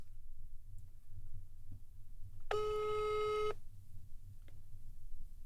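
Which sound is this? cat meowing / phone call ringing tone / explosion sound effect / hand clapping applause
phone call ringing tone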